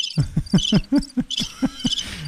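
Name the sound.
cricket chirping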